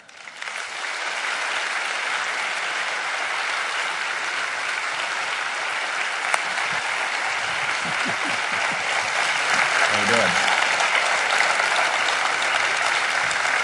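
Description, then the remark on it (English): A large audience claps steadily and enthusiastically to welcome Barry Meguiar of Meguiar's car wax, a dense wash of applause that holds at an even, fairly loud level for the whole stretch without anyone speaking over it. “So listen, give a warm welcome tonight to Barry Meguiar.”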